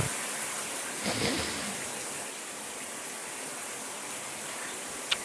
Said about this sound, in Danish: Det er, jeg tænder for bruseren, og så skal jeg egentlig bare tænke over ting, som jeg måske ville tænke på, hvis jeg var i bad.